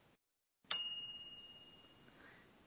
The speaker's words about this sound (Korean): 전자레인지에서 조리가 끝났을 때 나는 소리인가요? 네, 그렇습니다. 이 소리는 찡이라고 합니다.